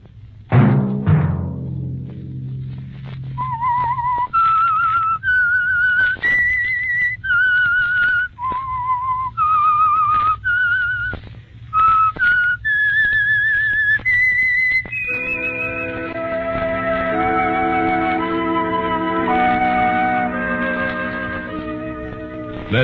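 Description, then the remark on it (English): A clear whistled melody, the theme of the radio program The Whistler sponsored by Signal Oil, plays alone in distinct rising and falling notes, then gives way to sustained orchestral chords that swell and hold through the end. “that whistle be your signal for the Signal Oil program, The Whistler.”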